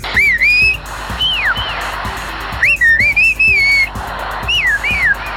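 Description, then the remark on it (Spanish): Loud, clear whistles with rising and falling melodic contours, sent in several phrases separated by short pauses: men in a town in Xochiapan, Oaxaca, Mexico, communicating in a whistled language, with no talking. “En un pueblo, los hombres son capaces de comunicarse con ayuda de silbidos”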